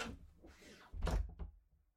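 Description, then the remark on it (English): A door without a bolt lock is worked open with a credit card: scraping and rattling at the latch, then a solid clunk as it gives way, followed by a softer knock. Fairly loud, with no voices. “All you need's a credit card to open them.”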